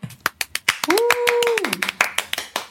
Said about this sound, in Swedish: En applåd. Härligt. Ja, vi kör en applåd.